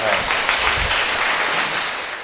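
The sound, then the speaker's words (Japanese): An audience claps steadily for a couple of seconds, a dense, even wash of many hands with no voices over it. “はい、どうも今日はありがとうございました拍手を持って皆さんお送りくださ”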